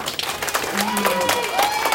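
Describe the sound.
An audience breaks into steady, dense applause for an adviser, lasting about two seconds, with many hands clapping at once and a few voices rising faintly through the noise.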